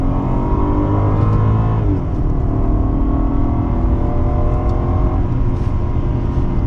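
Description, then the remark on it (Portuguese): A loud BMW 550 Security car engine, naturally aspirated, with a six-speed Steptronic gearbox in second gear, accelerates hard, its pitch climbing steadily, dipping briefly as if shifting gear, then rising again in a sustained roar with no talking. “Você tem aqui o câmbio de seis marchas, bota no Steptronic, eu estou na segunda marcha.”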